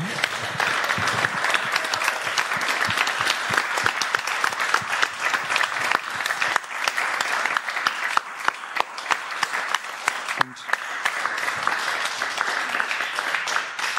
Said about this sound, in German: Und würde euch, äh, ihr Publikum, die hier vor Ort seid, noch ein letztes Mal für einen ganz, ganz, ganz, ganz großen Applaus bitten.